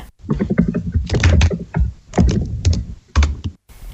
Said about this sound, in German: Der Rest der Truppe schreibt ihre Vermutungen in einem Chat. Dann hört man die Tastatur von allen.